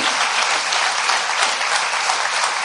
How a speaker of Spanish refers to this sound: ¿Quién le da un fuerte aplauso al Señor?